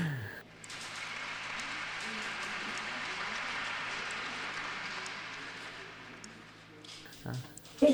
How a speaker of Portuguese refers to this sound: Aplausos.